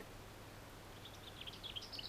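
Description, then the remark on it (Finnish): A lesser whitethroat sings a quick, soft run of high chirping notes that begins partway through and speeds into a rattling series, heard over a faint low hum. “Hernekerttu on yömuuttaja.”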